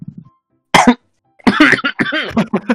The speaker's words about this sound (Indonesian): batuk, ya, dia. batuk dia. Batuk dia.